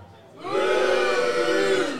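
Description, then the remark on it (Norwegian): A live crowd breaks into a long, sustained boo for Baby Mario as the worst of two candidates, swelling in after a brief quiet start and holding at a steady, loud pitch to the end. “Alle som syns uh, Baby Mario er den kjipeste av de to, Si bu nå.”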